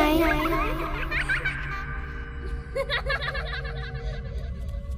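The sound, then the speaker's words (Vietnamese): Children giggle and laugh past midnight at a village communal house, near the village well in front of its gate, in short, breathy bursts: at first a high, sustained titter, then a quicker run of repeated chuckles over a low background rumble. “Nửa đêm nửa hôm trẻ con nào lại nô đùa trong đình làng như vậy Tiếng cười đó cứ phát ra ở một khoảng khu vực giếng làng phía trước cổng đình”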